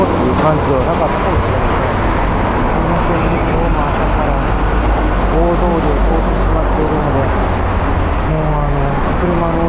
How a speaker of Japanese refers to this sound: 今日も朝から大通りを通ってしまっているのでもうあの車の音